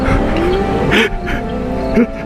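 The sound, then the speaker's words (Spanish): A car engine roars loudly and steadily at high speed, its droning pitch holding throughout, with a brief hissing whoosh partway through. “El vehículo rugía cada vez con más intensidad.”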